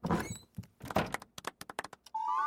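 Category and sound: household object, door opening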